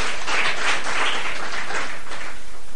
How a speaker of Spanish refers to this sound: Démele un aplauso al Señor por ese deseo que nos da.